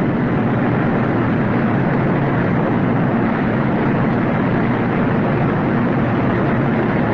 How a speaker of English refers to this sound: the sound of the open hearth floor